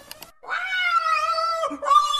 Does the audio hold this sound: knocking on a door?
no